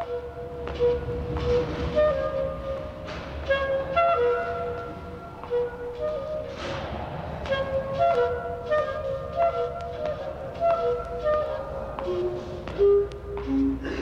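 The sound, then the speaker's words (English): An improvised duet recorded in 1962 by Tony Schwartz in a Manhattan office lobby: a clarinet plays wandering sustained notes with reverberation while sharp high-heel footsteps click steadily across the hard floor, the taps and melody mingling together with no one speaking. “This improvised duet of clarinet and high heels crossing a Manhattan office lobby was recorded in 1962 by New York audio legend Tony Schwartz, one of the most original and eccentric sound gatherers of the century.”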